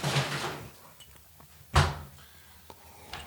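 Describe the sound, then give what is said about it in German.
A refrigerator door is pulled open with a soft rustle as someone takes out ice cream, then swung shut with a solid thud, followed by a few faint clicks and knocks. No one speaks. “Ich hole jetzt aus dem Kühlschrank”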